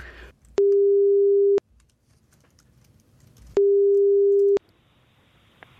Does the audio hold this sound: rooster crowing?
no